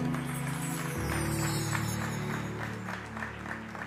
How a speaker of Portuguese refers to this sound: Você pode aplaudir ao Senhor?